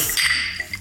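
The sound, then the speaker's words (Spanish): Glasses clink together in a toast, a bright, ringing chime with a couple of quick follow-up taps, heard on its own without talking. “Nos lo merecemos. Salud, campeón.”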